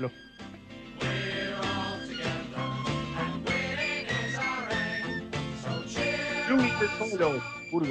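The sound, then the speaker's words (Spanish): Chelsea football club's official anthem from 1972, sung by a group of players from that 1972 team over a full, steady band accompaniment. The singing is loud, with an old-fashioned, rousing march-like feel and no talking over it. “El Chelsea eh, tiene un, himno que es del 72, que mm, lo cantan jugadores de, esa, de, esa, de ese 1972 eh, y que suena así.”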